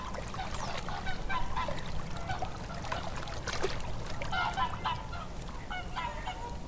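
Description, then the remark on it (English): A flock of whooper swans, newly arrived from their migration from Iceland, calls repeatedly on Lough Neagh on a crisp, misty late-October morning, with overlapping honking and bugling notes over steady water lapping and no one speaking. “The first Whooper swans have arrived fresh from their non stop migration journey from Iceland.”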